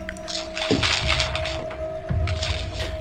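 Close, continuous crinkling and rustling of paper maps being handled, with a few sharper crackles and soft thumps, over a steady low electrical hum. No one speaks.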